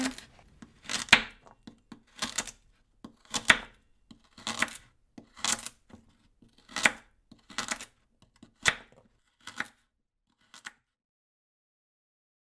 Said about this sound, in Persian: تا تو تو میخوری مامانم سیب زمینی و حویجو خورد کنه